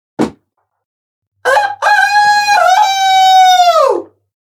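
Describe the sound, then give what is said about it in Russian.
In a studio, a person imitates a rooster's crow: a short sharp intake or click, then a long, loud, harmonic cock-a-doodle-doo call rising and stretching out for about two and a half seconds before falling off. “Во-первых, я умею кукаекать.”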